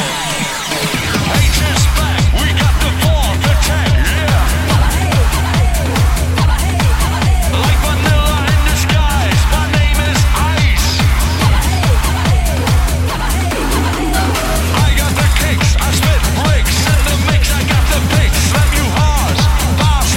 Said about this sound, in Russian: Ну хорошо, давайте мы сейчас послушаем музыку.